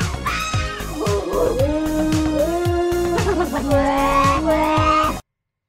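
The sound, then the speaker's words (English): A dog and a fox vocalize together for about five seconds, drawn-out whining and yelping calls layered over a steady, rhythmic thumping beat, fairly loud. “Is no, No, no, it was actually a fox again.”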